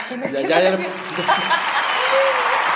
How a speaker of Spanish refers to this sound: tengo el placer, como siempre, de estar junto a esta maravillosa mujer a la que le vamos a poner de nuevo aplausos.